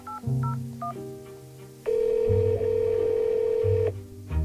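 A few quick keypad beeps from a phone being dialed, then a steady electronic ringback tone of an outgoing call ringing, close and clear, with no one speaking.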